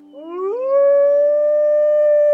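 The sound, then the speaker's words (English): A single wolf howl rises quickly in pitch, then holds a long, steady, loud note that carries to the end, with no voices or other sounds around it. “Instead, once it was out of the man's view, there was a puff of smoke, and it changed into a wolf.”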